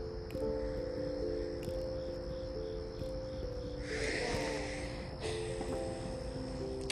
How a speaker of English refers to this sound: It's getting dark out. I should probably go inside. Can you hear the crickets? That's probably, yeah. You can probably hear the crickets. I'm outside, obviously.